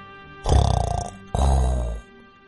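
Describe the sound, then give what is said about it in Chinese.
Two loud, rough snores from a lion: a rattling, fluttering inhale followed after a short pause by a deep, steadier growling exhale, with no talking. “他就很讨厌别人打呼噜”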